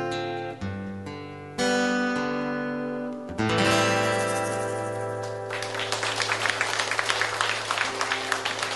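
A band's final sustained chords ring out and fade, then an audience breaks into steady, dense applause that fills the last few seconds, with no one speaking.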